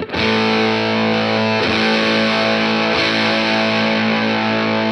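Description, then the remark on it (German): A heavily fuzzed electric guitar, played through a fuzz pedal on the single-coil pickup, rings out in sustained, thick chords with buzzy harmonics, restruck twice at steady intervals, loud and compressed with no talking over it. “Ich mach mal gerade hier nochmal den Fass auf dem Single Coil an.”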